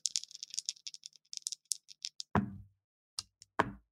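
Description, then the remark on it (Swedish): A rapid flurry of small hard clicks and rattles of a die tumbling down through a dice tower, followed by a few heavier thuds as it lands. Fairly loud, no voices. “Ja, men jag, har ju, jag har ju ett sånt här Dice Tower.”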